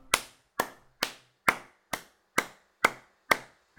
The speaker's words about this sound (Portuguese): Isto são palmas e no ruído de fundo está a passar uma daquelas motinhas de três rodas com um velho a conduzi-la.